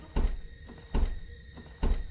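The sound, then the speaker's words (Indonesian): A bedroom door is pushed shut three times in a row at midnight but will not close, each push ending in a dull thud with a brief rattle, spaced roughly a second apart with quiet between. “Terus, gue coba tutup.”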